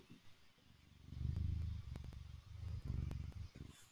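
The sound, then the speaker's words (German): A male cat purring: a soft, low, buzzing rumble that swells in two long breaths with a brief pause between, and no voices. “ich habe einen Kater namens Linus und ich hoffe, man kann ihn hören”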